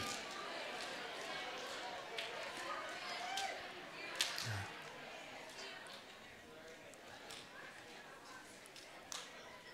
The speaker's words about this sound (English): Turn around high five somebody and tell them you're glad to see them, and you may be seated.